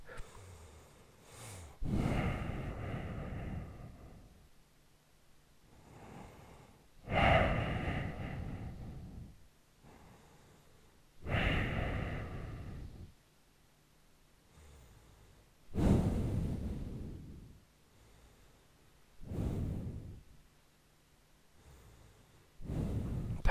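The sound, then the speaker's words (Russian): Breathy exhalations blown into a microphone for ASMR, about six of them at a slow, steady pace of roughly one every four seconds, each a soft airy rush with quiet pauses between and no talking. “Это дыхание или дуновение в микрофон.”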